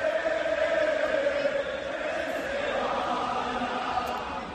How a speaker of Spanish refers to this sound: Bueno, pues sí, gritaban contra el entrenador, escuchen cómo gritaban contra el dueño, contra el entrenador y contra los jugadores. Los seguidores del Valencia tras la derrota frente al Atleti.